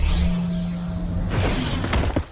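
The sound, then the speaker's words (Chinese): A time-travel whoosh transition effect: a broad airy rush over a low droning hum and faint steady tone, building into a burst of sharp, glittery crackles before cutting off. No one speaks. “斗转星移，时空穿梭，嗖！”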